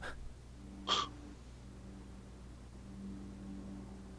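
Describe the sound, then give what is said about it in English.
A lawnmower drones faintly about two streets away, a low steady engine hum running throughout, with one brief close breathy burst near the start and no talking. “Who's got a fucking lawnmower going? That's like two. that's like two streets away.”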